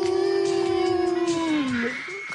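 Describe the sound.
A person imitates a wolf howl: one long, loud, sustained voiced note, wavering slightly before sliding downward and fading at the end.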